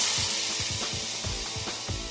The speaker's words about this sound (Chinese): 兔子妮妮朝着大蛇使用刨冰旋风枪，刨冰旋风枪喷出的白色气体刚好全部被张口而来的大蛇吞了进去。